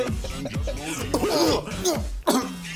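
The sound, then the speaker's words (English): A person coughs close to the microphone, several harsh throaty bursts with some throat clearing, loud and near, with voiced sounds mixed in between the coughs. “Looks great as long as I don't um, cough directly into the mic.”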